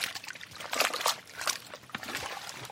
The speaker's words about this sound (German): Zwei Kessel, sie werden mit Holz und Feuer erhitzt, stehen am Straßenrand. Ein Laote rührt mit einem langen Holzstab im brodelnden Wasser.